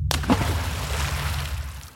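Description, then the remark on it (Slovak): A single heavy splash as a man jumps into the water of a well, followed by a churning, sloshing wash over a low rumble that slowly fades over about two seconds. No voices. “Z posledných síl sa postaví na nohy a rozbehne sa k studni. Neváha. Je to jeho jediná možnosť. Iba tam, vo vode, kúzla nebudú mať nad ním moc.”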